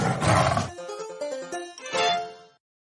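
A deep, rasping tiger roar bursts out, fades into a few brief tonal notes, then a second, shorter roar swells and trails off into silence.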